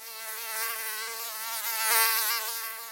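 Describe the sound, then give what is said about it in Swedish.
A thin, high-pitched mosquito whine drones steadily for a few seconds, its pitch wavering slightly as it swells louder and fades. No voices. “Det har nog inte undgått någon att Sverige är invaderat av mygg just nu.”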